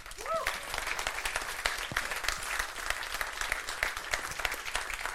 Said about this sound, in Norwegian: Så folkens, jeg tror vi bare må gi en god applaus til produsent